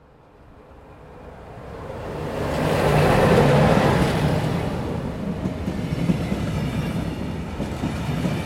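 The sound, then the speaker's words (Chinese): A train rumbles along the tracks at a railway station, its low, steady roar swelling over the first few seconds and then holding as a broad, continuous rush of noise. No one speaks. “然后我们就在火车站告别了，踏上了下一个城市的旅程。”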